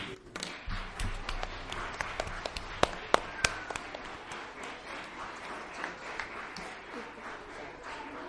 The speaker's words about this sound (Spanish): Por eso pido un aplauso para todos ellos.